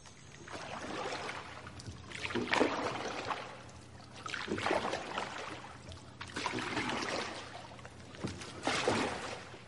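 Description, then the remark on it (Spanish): Oars dip and pull through water in a slow, steady rhythm, each stroke bringing a swell of splashing and swishing, with a low hum of water lapping around a rowing boat between strokes, as the boat approaches the Temple of Artemis at Ephesus from the sea. “En tiempos antiguos, el edificio era visible desde el mar a varios kilómetros de distancia incluso por la noche, y esto sería lo que vería la princesa Arsinoe al acercarse en barco.”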